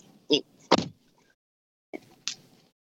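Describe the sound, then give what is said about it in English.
A car door with something wrong with it clunks open and thuds shut, making two pairs of sharp mechanical knocks separated by a short quiet pause. “Okay, don't worry about what's wrong with the door.”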